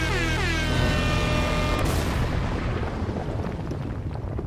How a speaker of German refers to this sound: spielst du okay, kurz den Jingle ab. Und hier kommt er.